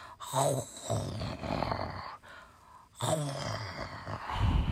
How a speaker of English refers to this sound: 嗯，Mr. Watson 说完又打起了呼噜。He started to snore.